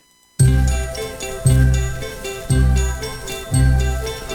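After a brief moment of silence, a song begins with four loud, ringing bell-like chords struck at a steady pace about a second apart, each one sustaining and fading into the next.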